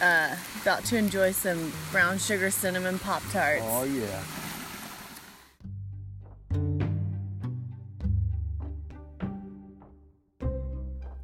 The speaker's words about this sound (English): Uh, you can hear the water in the background